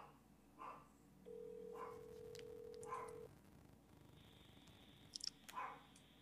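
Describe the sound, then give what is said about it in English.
A dog barks several times, short muffled yelps spaced about a second apart, alongside a steady electronic phone tone from a phone call being placed and a low background hum. “I hear a dog.”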